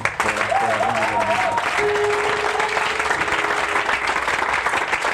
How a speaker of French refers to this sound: Est-ce qu'on peut encore acclamer Dieu hein?